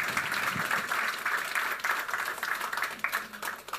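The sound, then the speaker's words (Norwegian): Sustained audience applause for guests as they leave, a dense, steady wash of many hands clapping at a fairly even loudness throughout, with no voices standing out. “Gi dem en varm applaus på vei ut.”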